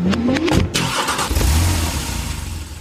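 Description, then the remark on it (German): A car engine cranks and catches with a brief revving burst, then settles into a steady low rumble as it idles, heard from inside the car with no talking. “Wir sitzen jetzt im Auto.”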